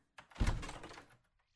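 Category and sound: household object, door being opened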